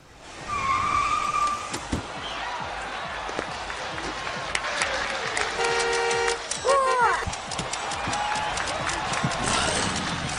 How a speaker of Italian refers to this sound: Vai, sigla!